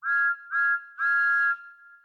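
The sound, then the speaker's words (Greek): A toy train whistle blows three times, two short toots followed by a longer one, loud with a steady bright tone and a brief fading tail. “Ο Τόμας ανυπομονούσε τόσο να δοκιμάσει τη νέα του σφυρίχτρα”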